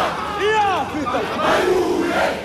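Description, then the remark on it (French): A loud crowd of Youth League protesters shouts and chants in unison, demonstrating in the streets against the government, voices rising and falling in rhythmic waves for a few seconds. “Comme les réunions et les discours ne sont guère efficaces, la Ligue des jeunes décide d'aller manifester dans les rues.”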